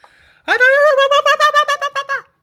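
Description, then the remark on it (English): A single voice imitates ululation: a loud, high, sustained vocal cry rapidly warbled into about nine quick, even pulses, lasting under two seconds before stopping abruptly. “That's kind of like ululation.”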